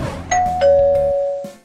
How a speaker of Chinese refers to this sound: 小泼猴又按了几遍门铃。